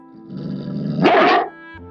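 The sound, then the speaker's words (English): A dog growls low and steadily for about a second, then breaks into a louder, harsher snarl that cuts off abruptly. There is no talking. “Growl! The dog growls and says,”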